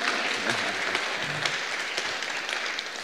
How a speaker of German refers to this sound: Vielen Dank an die Band nochmal. Gebt dir nochmal einen, einen richtig dicken Applaus, also richtig fett.